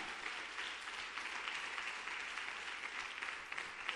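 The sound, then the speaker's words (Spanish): An audience applauds steadily for the Heavenly Father, a dense wash of many hands clapping at once that holds at an even, fairly loud level throughout without pause. “Dale un fuerte aplauso entonces a nuestro Padre Celestial.”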